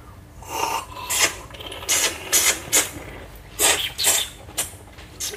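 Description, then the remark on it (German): Someone slurps fine tea from a spoonful taken from the cup in a quick run of short, airy, hissing sips, about eight or nine bursts in an uneven rhythm, each rough and breathy, with no talking. “Einfach, ein, einfach äh, schlürfen.”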